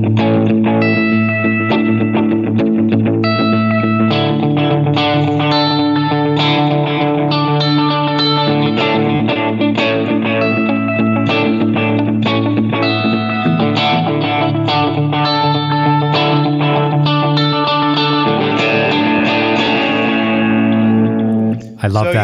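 Electric guitar played through a band-style delay, steady chiming repeated notes cascading into echoes over sustained low tones, loud and continuous for about twenty seconds with no talking.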